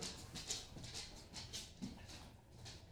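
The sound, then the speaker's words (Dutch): Soft, rhythmic clicking of a dog's claws on a hard floor as Jade the dog walks past, a few light steps, quiet, with no talking. “Ja, wat jullie horen is Jade die komt Ja, de hond loopt hier voorbij, maar dat maakt niet uit.”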